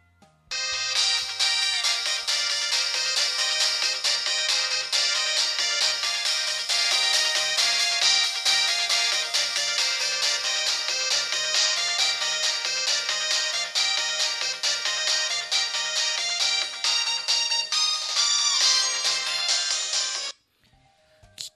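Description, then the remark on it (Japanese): A bright, synthetic Japanese mobile-phone ringtone melody (chaku-mero) version of a pop song plays continuously for about twenty seconds, loud, with busy high-pitched melody tones and no voices, then stops abruptly. “懐かしいな懐かしいな着メロッケね、今聞いてもめっちゃおきょいいよね、今日も。”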